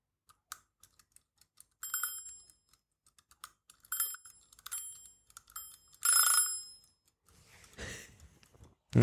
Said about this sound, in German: Ihr habt da die Eieruhr, das ist die Hund-Wuff-Bewirkungsuhr. Wenn ich die jetzt ein bisschen drehe, die Eieruhr, dann werden wir das Wuff vom Hund, der jetzt hinter uns schläft in seinem Kistel, wirklich, der ist jetzt ganz ruhig, unmittelbar hören.